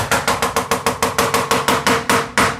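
Walnuts being chopped with a knife for a salad: a quick, steady run of about a dozen loud, sharp knocks of a knife against a board, evenly spaced, with no voices.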